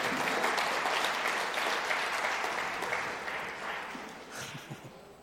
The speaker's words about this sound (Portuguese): Obrigado, pessoal. Dá uma salva de palmas aí para essa turma.